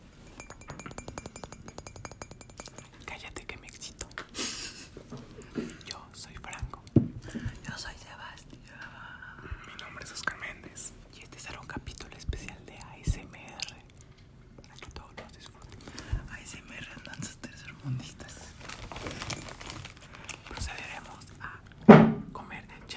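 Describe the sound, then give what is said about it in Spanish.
Breathy ASMR whispering for an introduction runs throughout with soft mouth clicks, light clinks and small chewing-like sounds, all quiet and intimate, ending with a sharper louder knock near the end. “Bueno, hasta ya acabó la introducción a SMR.”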